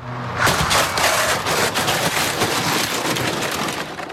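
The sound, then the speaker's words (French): A car slams into a scooter at 50 km/h in a staged accident reconstruction with a dummy, with a sudden loud bang, then a dense, crackling rush of scraping and clattering debris continues steadily for several seconds with no voices. “Une voiture vient de percuter un scooter à 50 km heure.”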